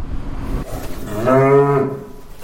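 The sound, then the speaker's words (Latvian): A single beef cow on a farm moos once, a long, harmonic low-pitched call that swells in the middle and fades, over a steady outdoor background with no one talking. “Buļļi jau te klāt nav, vai ne? Tie ir tikai gotiņas.”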